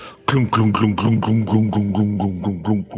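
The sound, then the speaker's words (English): A voice imitates open-topped rail cars starting to move and heading off down a cavern, making a steady rhythm of about ten loud chugging vocal bursts that keep an even pace without any words. “you see the rail cars start to move as the Kuromokishi like has just like initiated it to go and then runs and hops in with the other two and the rail car goes”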